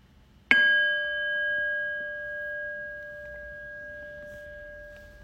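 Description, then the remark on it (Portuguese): A single meditation bell is struck once to end a formal meditation period, its clear metallic tone ringing out and slowly fading over several seconds amid quiet. “deslizando na expiração, eu vou convidar o sino a soar novamente, interrompendo o período formal de meditação.”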